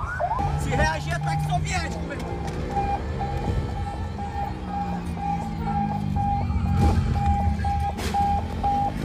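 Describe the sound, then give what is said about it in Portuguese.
A police car siren sounds a steady, high, rapidly pulsing tone throughout, loud over a constant low rumble of engine and traffic noise, switched on during a pursuit on the main road of Manoa. “Liga o sininho. Liga o sininho, liga o sininho.”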